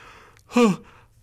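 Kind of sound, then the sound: human body sound, child yawning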